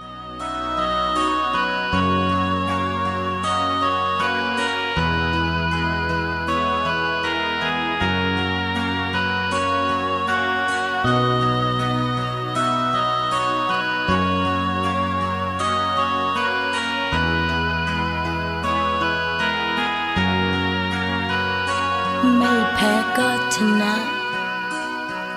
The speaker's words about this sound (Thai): เดี๋ยวช่วงนี้เบรกฟังเพลงเพราะๆจากทางรายการกันสักครู่นะครับเดี๋ยวช่วงหน้ากลับมาอยู่ด้วยกันต่อครับ